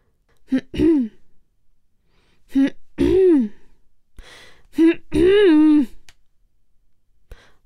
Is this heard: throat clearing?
yes